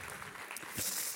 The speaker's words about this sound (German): Geben wir ihm Applaus.